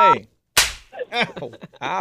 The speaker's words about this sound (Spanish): Aprieta el 2 para darle la, bofetada virtual. Ahí va.